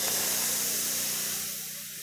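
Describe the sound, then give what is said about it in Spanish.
A voice imitates food sizzling in a frying pan, making a steady, breathy hiss that lasts about two seconds before tapering off slightly. Fairly loud, with no words spoken. “Cuando uno frita, ¿cómo suena cuando usted está fritando algo?”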